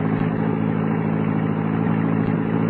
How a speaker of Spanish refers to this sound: mete todo el acelerador, de modo que el auto se arranque de un salto y no nos puedan detener.